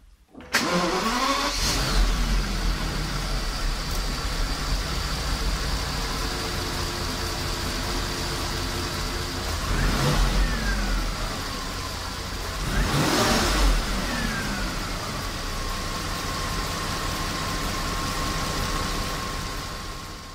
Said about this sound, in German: So, und wie so ein Phaeton W12 sich anhört, wenn man ihn in der Garage bei offener Motorhaube startet, das hören wir uns jetzt einfach mal an.